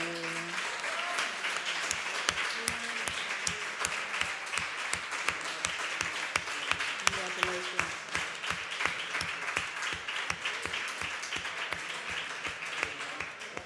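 Sustained audience applause, a dense wash of many hands clapping steadily for over ten seconds, with a few sharper individual claps standing out and faint voices underneath.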